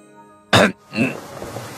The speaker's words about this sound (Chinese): 大师清了清嗓子